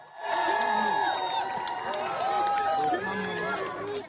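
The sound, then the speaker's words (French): A large crowd cheers and calls out in a sustained, dense roar of many overlapping voices, with whoops and shouts rising above the steady outdoor din, as King Charles III returns to Buckingham Palace in London shortly before 2 p.m. “Peu avant 14 heures, il fait son retour au palais de Buckingham sous les ovations.”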